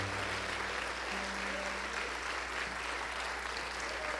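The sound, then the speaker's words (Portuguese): An audience applauds the Lord steadily for several seconds, a dense, continuous wash of clapping with a low sustained hum underneath and no clear voices standing out. “Você podia dar um aplauso ao Senhor?”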